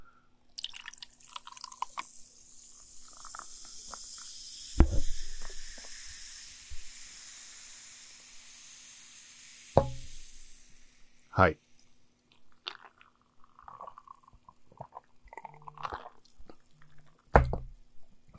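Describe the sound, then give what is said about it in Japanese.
A carbonated energy drink is poured, a sustained bright fizzing hiss that swells then fades, punctuated by a few sharp clinks and drips near the end. “ちょっと今注ぎます。”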